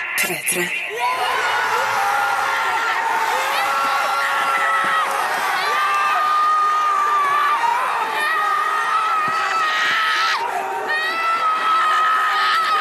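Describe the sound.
A family of self-described football fanatics from Stavanger shouts and cheers excitedly after watching their team score in the year's most important match, loud and sustained whoops and yells with overlapping high-pitched voices, including children, for the whole stretch.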